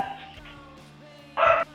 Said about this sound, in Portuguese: Tá pra ouvindo o cachorro ainda.